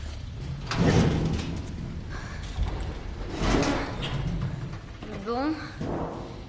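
A heavy metal security door grinds and clanks in repeated surges as people try to lift it, with strained grunts of effort between the heaves.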